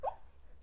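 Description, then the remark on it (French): A single short, soft whimper from a dreaming dog, a quick high squeak that fades at once, followed by near silence with no one talking. “Désolée si vous avez entendu un petit bruit, c'est mon chien qui rêve.”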